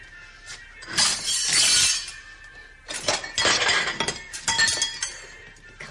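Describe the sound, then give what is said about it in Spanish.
Cutlery falls to the floor as plates are picked up while tidying a kitchen: a few loud bursts of bright metallic jangling and clinking, with short pauses between, and no voices. “Más tarde, Mari recoge la cocina en casa de Robles cuando toma unos platos y los cubiertos se caen al suelo.”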